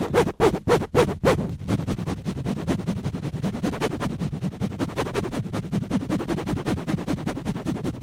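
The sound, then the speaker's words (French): Rough scraping of a microphone rubbed against deckchair canvas, starting with a few sharp rhythmic strokes, then settling into continuous coarse rubbing and rustling at a steady loudness. “Toile de chaise longue.”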